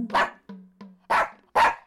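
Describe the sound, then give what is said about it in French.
A dog barks three times, loud, the first bark alone and the last two following in quicker succession, with brief quiet gaps and a faint low hum between them. “Elle leur montrait des toutous.”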